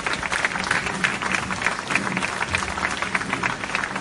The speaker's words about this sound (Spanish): Un aplauso para Luna también